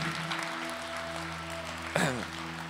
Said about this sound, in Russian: Дайте им огромные аплодисменты, они сидят здесь.